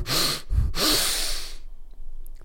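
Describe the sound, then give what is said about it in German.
Two forceful, rushing inhales through the nose in quick succession, loud, filling the lungs as part of a breathing technique, with a brief pause between them, followed by near silence. “Also so richtig durch die Nase, so richtig durch die Nase rein.”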